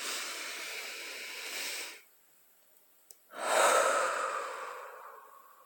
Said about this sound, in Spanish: Respirar profundo, a ver conmigo.